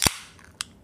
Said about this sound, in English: Crack a cold one, boys.